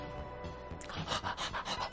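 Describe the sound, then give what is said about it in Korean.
A dog named Poppy pants in quick, rhythmic breathy bursts, growing steadier and louder after a brief quiet start, with no one speaking. “뭐라고 말 좀 해봐라, 이 강아지야.”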